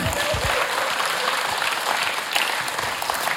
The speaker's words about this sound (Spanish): Un aplauso para el bebé gigante.